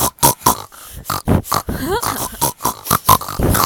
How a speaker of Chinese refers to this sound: 哇，怎么有那么多猪叫声啊？小猪接连不断的从天而降，哇，好多好多